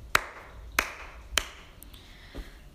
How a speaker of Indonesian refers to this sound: Terekam tahun 2018 oleh The Organization for Economic Cooperation atau OECD dalam tes PISA yaitu Program for International Student Assessment bahwa Indonesia berada di peringkat ke-13 dari total 15 negara di Asia. Oke, beri tepuk tangan dulu.